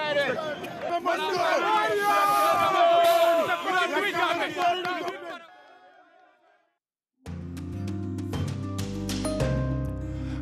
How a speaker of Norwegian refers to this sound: We have decided. Vi har bestemt, sa feirende gambiere da president Barrow ble tatt i ed for en måned siden og de jubler fortsatt.